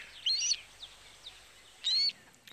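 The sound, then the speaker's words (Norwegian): Two short bursts of high, bright bird chirps, about two seconds apart, with faint twittering in between, heard alone against a quiet background. “intervjua de eneste gjenlevende dinosaurene vi har uh, i dag”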